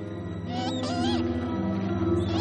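A white owl approaches carrying a package in its talons: a few shrill, wavering owl cries rise and bend over a steady low hum, clustered in the first half before trailing off into fainter chirps.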